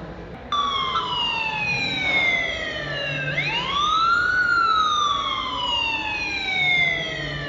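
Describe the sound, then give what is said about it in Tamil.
An ambulance siren wails loudly as the ambulance arrives for a person who collapsed on the road, its pitch sliding slowly down, then swooping up and easing off again in a long sweeping cycle, with faint road rumble underneath and no voices. “அங்கே போய் ஆம்புலன்ஸ் வந்துட்டியா”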